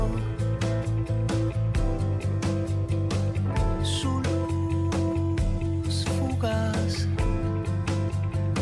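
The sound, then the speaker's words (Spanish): The opening of an album by a Uruguayan artist: a song starts up with a steady, regular percussion pulse, warm bass and sustained melodic tones, and a voice briefly sings over the full, even-volume instrumental texture. “este es el inicio de uno de los discos fundamentales del uruguayo”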